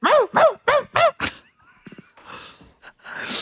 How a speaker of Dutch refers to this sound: Wow, er zit hier een hondje echt driftig te... Hoor je dit? Ja. Het is echt...